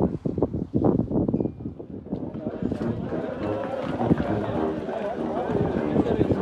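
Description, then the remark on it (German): Strong wind buffets the microphone in a constant, heavy low rumble with gusty surges, lasting the whole stretch, while indistinct voices seem buried beneath the roar, beside a road where hundreds of road cyclists ride past. “Der Wind fegt”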